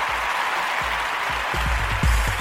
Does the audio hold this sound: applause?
yes